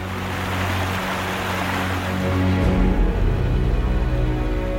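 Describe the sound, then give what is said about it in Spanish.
A loud, continuous thundering roar of water plunging from the end of a culvert into a huge canal, with a deep rumble underneath, swelling heavier about halfway through as the torrent pours steadily on, with no voices. “Pero a la vez escuchó un sonido atronador, capaz de desanimar al más valiente de los hombres.”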